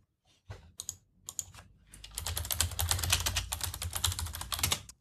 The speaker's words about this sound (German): Du sollst doch nicht so laut tippen.